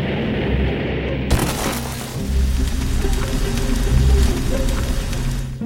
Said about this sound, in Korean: 아, 이런, 이런 비행기 추락으로 사하라 사막에 떨어졌구만.